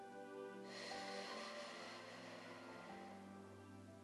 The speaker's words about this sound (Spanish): Ahora para comenzar, relaja tu cuerpo y respira conmigo. Tomemos una respiración bien profunda. Inhala.